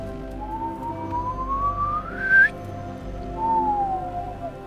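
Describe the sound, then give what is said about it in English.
A man whistles lightly as a signal to Edgar: a light whistle slides slowly upward and cuts off, then after a short pause a second softer whistle drifts downward, both fairly quiet over a steady low background hum. “and he is going to whistle lightly out to Edgar.”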